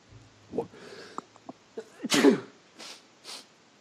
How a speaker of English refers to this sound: Excuse me, folks. Just had a sneeze there.